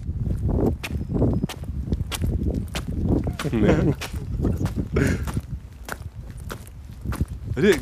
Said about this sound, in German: Und zwar bin ich beim Regen, es war ein regnerischer Tag, bin ich auf einem Bein gehüpft und hatte Gegenwind. Das ist natürlich sehr interessant. Hört euch das mal an.